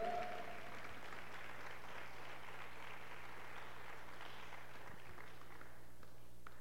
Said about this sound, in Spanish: Dale un aplauso al Señor bien fuerte. Él merece toda la gloria.